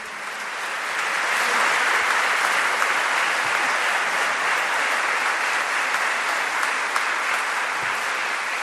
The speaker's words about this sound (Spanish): Un aplauso, un aplauso, un aplauso, un aplauso.